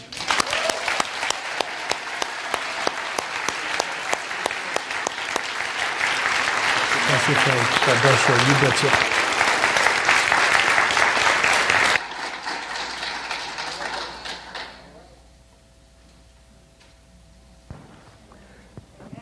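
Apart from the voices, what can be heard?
audience applause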